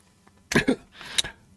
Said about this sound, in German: der hustet, ein bisschen Rauch steigt ihm aus dem Mund.